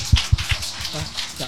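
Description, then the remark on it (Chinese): A brief burst of scattered audience clapping welcoming a guest at an anti-fraud talk event, a soft crackling patter with a few dull low thumps at the start, while voices carry on faintly underneath. “来大家鼓掌欢迎。”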